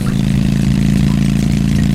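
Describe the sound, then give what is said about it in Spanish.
A motorcycle engine roars loud as it approaches very fast, a steady low rumbling drone that holds throughout with no pause, and no voices can be heard. “¿Por aquí va a pasar esa moto?”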